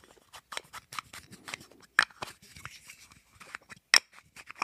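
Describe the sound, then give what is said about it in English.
A rapid series of sharp clicks and snaps as two camera lens pieces, including the front part of a lens, are opened and closed together, repeating about a dozen times in an uneven rhythm, fairly crisp, with no talking. “Opening and closing these things together, these two pieces.”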